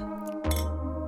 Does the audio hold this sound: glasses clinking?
yes